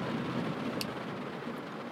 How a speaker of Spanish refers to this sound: disculpen la lluvia, está lloviendo en este momento, espero que no se filtre tanto el ruido. Por cierto, estamos a 22 grados con lluvia.